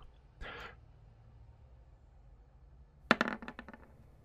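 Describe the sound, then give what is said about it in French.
Dice clatter on a hard surface during a tabletop role-playing game roll, showing 99: a short rattle near the start, then after a pause a sharper burst of quick clicks that bounce and settle. No one speaks. “Alors c'est moi je vois 99 sur les dés et ça affiche 98.”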